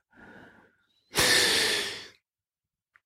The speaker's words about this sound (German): Du hörst meine Bronchien pfeifen, ich habe äh, Asthma.